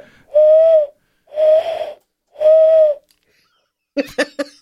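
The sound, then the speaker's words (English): A person imitates an owl with three long, breathy hoots, evenly spaced and fairly loud, followed by a brief burst of voice at the end. “You're going to make an owl noise, are you?”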